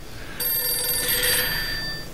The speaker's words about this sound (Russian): Входящий звонок на главном радио. А, к сожалению, не дождались.